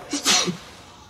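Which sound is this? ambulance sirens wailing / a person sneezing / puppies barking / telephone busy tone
a person sneezing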